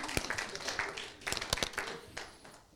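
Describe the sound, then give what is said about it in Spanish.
Scattered, uneven claps ring out from a small audience, a handful of sharp hand slaps spread across a few seconds over a soft, hazy background rather than a full burst of applause. “Dale aplauso al que vive.”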